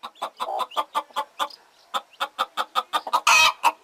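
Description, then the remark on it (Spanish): Hens cluck in a steady, rapid series of short calls, with one louder, harsher squawk near the end and no talking. “Un día le estaba dando comida a las gallinas y mi abuelita estaba arreglando tres canastos para las gallinas.”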